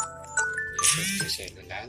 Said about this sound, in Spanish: Sí, esa es la alarma.